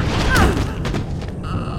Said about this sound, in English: her body convulsed, throwing her violently backwards and smashing her head into the stone wall.